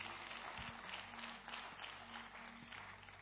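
An audience claps their hands in a steady, dense wash of applause that holds at an even loudness for about three seconds, with a low hum underneath and no talking.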